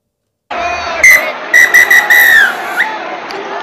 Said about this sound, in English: And that's the final whistle.